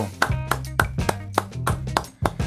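An audience claps in a steady, even rhythm, roughly three or four sharp beats per second, over music with a low, sustained bass line, welcoming guests from Córdoba, Argentina. No one speaks.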